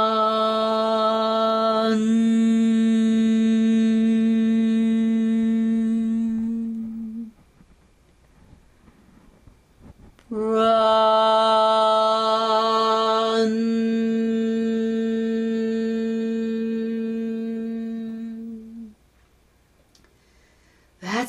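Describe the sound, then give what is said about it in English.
A single voice tones a long, steady chanted syllable, "bran," twice, each held for about seven or eight seconds with a short silent pause between, resonant. “You're going to place this sound, bran, Bran. Bran. Three sounds right through the space where you find yourself.”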